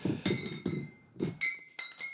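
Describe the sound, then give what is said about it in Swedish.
Beer glasses clink together several times in quick, uneven succession, each touch leaving a bright ringing tone that lingers briefly; moderately loud, with no talking. “Klirr, klirr, klirr.”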